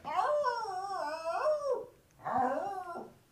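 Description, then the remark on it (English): A female dog whimpers and whines in two drawn-out, wavering bursts, the first long and the second shorter after a brief pause, fairly loud with no talking. “I can get her to talk if you want.”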